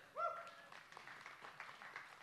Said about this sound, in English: we, about one third of our church, are in elementary school or younger. One third. It's crazy. It's cool. Yeah, you can clap for that.